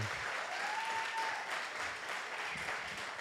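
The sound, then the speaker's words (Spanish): A crowd breaks into steady applause, dense overlapping clapping that holds at an even, fairly loud level for about three seconds, with a faint whistle rising briefly over it. No one speaks. “El que pelea, él merece un aplauso.”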